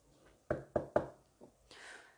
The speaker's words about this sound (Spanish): En cuanto el posadero lo dejó solo, el hombre de negro salió de su habitación y llamó a la puerta de aquel cuarto de al lado.